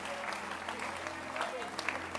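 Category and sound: crowd, audience applauding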